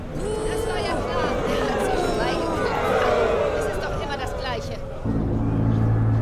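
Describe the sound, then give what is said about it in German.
A loud, dense murmur of many voices talking at once, an agitated courtroom audience with overlapping chatter reacting to the court's verdict against Anton Schlecker; near the end a low steady hum rises beneath the babble. “Das Publikum ist dagegen mehr als aufgebracht.”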